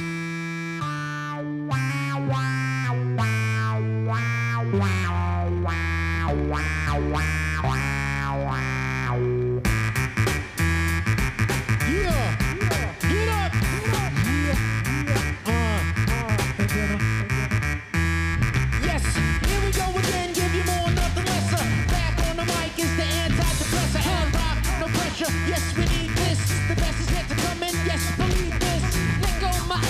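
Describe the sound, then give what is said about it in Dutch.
A hip-hop track plays loud and full, opening with short punchy chord stabs before a steady heavy beat with deep bass kicks in and runs to the end. “dankjewel Geert, we gaan hem gewoon luisteren. ….”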